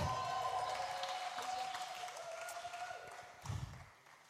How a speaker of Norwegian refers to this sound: La oss gi alle musikerne og sangerne her en skikkelig applaus. Så flott.